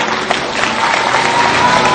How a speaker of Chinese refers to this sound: 听见没有？欢呼声啊！